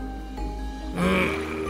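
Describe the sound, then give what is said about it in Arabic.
A low, gurgling stomach growl from hunger rumbles for under two seconds, swelling into a louder, throaty churn midway before trailing off. It is fairly prominent, with no talking. “هذا صوت بطني يصرخ من الجوع”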